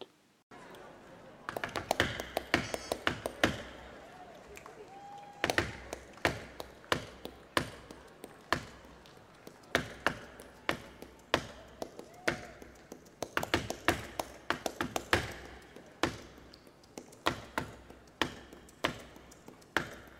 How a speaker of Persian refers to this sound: افرادی که پالما اجرا میکنن باید فهم خوبی از پالو داشته باشند. پالو دستبندی از انواع سبک های اجرای موسیقی فلامینکوه اجرا کنندگان پالما از ضربات پاشون هم برای تولید صدا یا نگه داشتن ریتم استفاده میکنند.